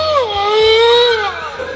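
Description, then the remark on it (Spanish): A single drawn-out, high-pitched whine, like a dog whimpering to be let out, that dips at the start and holds steady before fading, with no talking. It is a sound effect called "perro que no le sacan", played by pressing a button on a device. “Es, es, es, es, perro que no le sacan, se llama. perro que no le sacan.”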